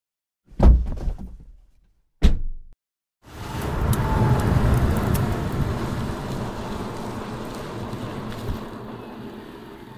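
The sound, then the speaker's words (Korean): Two short, loud engine revs, then a combustion-engine car rumbles steadily and gradually fades as it drives off, emitting acrid exhaust fumes, with no voices; a street sound in a Greenpeace ad. “거리의 소리를 찾아서 이 소리는 기후 위기를 심화시키는 내연기관차가 매캐한 매연을 뿜으며 지나가는 소리입니다.”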